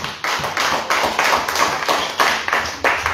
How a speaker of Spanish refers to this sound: Palmas a Jesucristo, hermanos, Dios. A ver, a ver, tres palmas Jesús.